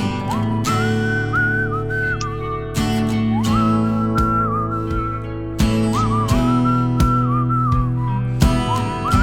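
A whistled melody glides and wavers over a steady backing track of sustained tones and regular percussive hits, repeating the same phrase several times at an even, moderate loudness with no voices.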